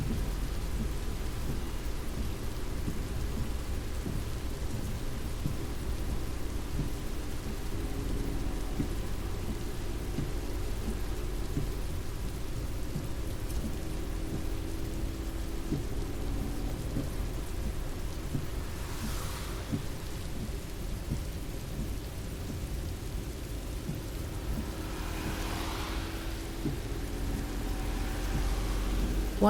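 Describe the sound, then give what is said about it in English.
Heavy rain drums steadily on a car roof, with low rolling thunder rumbling throughout and a couple of brighter swells of downpour midway and near the end; no voices. “I never get though is why people drive so fast when the rain is falling so hard and you can't even see far.”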